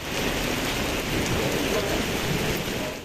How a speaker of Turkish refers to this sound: Edirne'de dün öğle saatlerinden itibaren etkili olan gök gürültülü sağanak yağış ve dolu hayatı olumsuz etkiledi. Kısa sürede yollar göle döndü, araçlar ilerlemekte güçlük çekti.